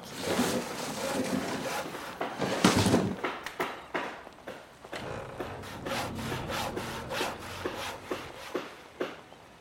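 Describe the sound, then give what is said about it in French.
A saw cuts through wood to build a boat, in steady back-and-forth strokes, fairly loud, with a brief flurry of faster rasping partway through and no voices. “Les gros boussiens le remercièrent et l'aidèrent même à rentrer chez lui en lui construisant une immense barque.”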